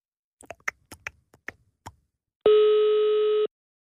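A single steady telephone ringing tone, a buzzy one-second hum with strong harmonics, preceded by a quick series of short clicky dialing blips, as a call from Radio 24 in Copenhagen is put through to The Mokka Café via an automated phone menu; no voices.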